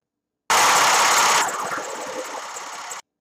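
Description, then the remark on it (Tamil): Someone imitates a lorry engine with a harsh, breathy roar that lasts about two and a half seconds. It starts loud for the first second, then settles into a steadier, slightly softer rumble before cutting off. “என்ன அது பெரிய சத்தம் ஓகே ஏதாவது லாரி போயிருக்கும் பட் லாரி இப்படி தானே போகும் அந்த லாரி லாரின்னா இப்படி தானே போகும்”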